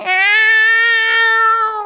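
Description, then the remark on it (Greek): A brave tomcat with a smiling face, rubbing against a woman's left calf, gives one long, sustained meow lasting nearly two seconds, steady and loud with a slightly whiny, drawn-out pitch, heard alone without any talking. “Και αυτός, ένας γενναίο γάτος με γελαστό μουτράκι, τη μέρα του γράμματό του, της γιορτής των γατιών και της γενεοδορία, δεν μπορεί να το επιτρέψει να γίνει.”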